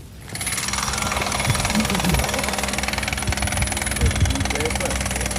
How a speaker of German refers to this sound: Das Zürcher kantonale Turnfest Zricken im Döstal. In anderthalb Wochen geht es los. Das Festgelände, das ist im Moment noch Baustelle.